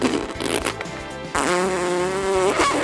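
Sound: fart sound effect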